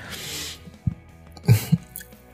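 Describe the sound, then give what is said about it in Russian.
A woman sneezes: a hissy breath of air, then short sharp bursts. No one is talking. “Э, я чихнула, вы внушили.”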